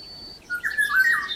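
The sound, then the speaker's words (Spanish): A Eurasian golden oriole sings a short, fluty whistled phrase with a slightly harsh, squawking edge, preceded by a thin high note. It is heard alone and fairly clearly, lasting about a second. “Pues fíjate cómo suena una oropéndola, a ver si puede ser o no puede ser.”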